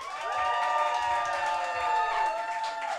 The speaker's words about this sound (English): For the people in the Wonderland Ballroom, please make noise so people don't think I'm insane.